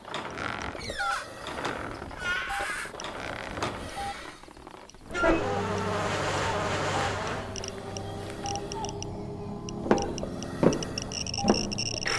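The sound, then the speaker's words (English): Rusty metal creaks and squeals as an old, rusted crank is turned, then the heavy door of a hidden entrance with writing on it grinds open with a loud, sustained scraping rumble, ending in a few sharp clanks. “It looks pretty old and rusted. There's some writing on it.”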